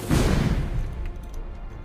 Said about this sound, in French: Une formidable explosion eut lieu et un effondrement scella l'entrée de la grotte